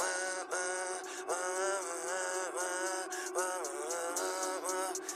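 A bright, sustained melody recorded on a small microphone plays alone, its tones gliding and stepping between pitches in a steady, continuous phrase at moderate loudness, with a slightly thin quality.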